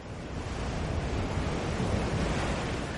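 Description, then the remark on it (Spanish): Rough, stormy sea surf at a cliff roars steadily and loudly with wind, a dense continuous wash of churning waves with no distinct individual crashes and no voices. “De modo que el hombre, tan insignificante su silueta amarilla contra la mole catedralicia y gris del mar y la tempestad fundidos en un abrazo, gira sobre sus talones y no sin esfuerzo se aleja del acantilado.”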